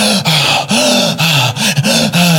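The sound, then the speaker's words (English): A voice imitates a man having a panic attack: six or so quick, strained, partly voiced breaths in rapid succession, loud, with no words spoken. “and just breathing.”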